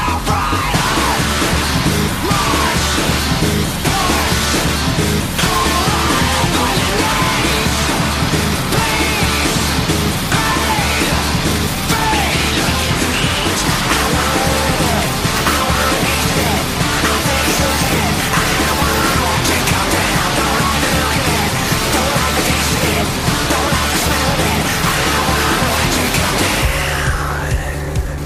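An aggressive industrial rock song blasts loud and dense, with shouted vocals over distorted guitars and a pounding, relentless beat, ending with an abrupt cut to a low sustained hum.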